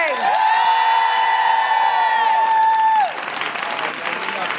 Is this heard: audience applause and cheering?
yes